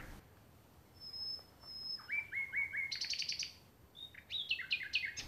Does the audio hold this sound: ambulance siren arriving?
no